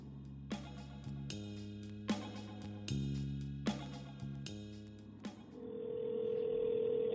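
A quick run of about seven electronic phone-keypad beeps gives way to a steady telephone ringing tone on an outgoing call. It is clear and close, with no voices.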